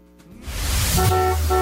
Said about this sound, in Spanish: Bocinazo en Exa FM.